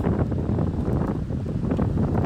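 Heavy wind buffets the microphone in a constant low, rumbling roar, loud throughout, with irregular gusty thumps and no voices, drowning out an attempted interview with a coach.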